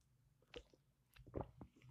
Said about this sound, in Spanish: Perdón, un trago de agua.